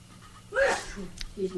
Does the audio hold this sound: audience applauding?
no